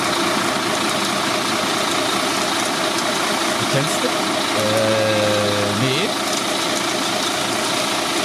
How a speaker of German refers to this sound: Das hört sich an wie ein Generator eine Baustelle? Das ist eine Baustelle. Das ist, äh, da, da, da, was ist das? Schutt oder Beton oder was? Zement. Zement, ja, ja, das klar. ist ein Zementlaster.